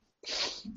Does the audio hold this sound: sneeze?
yes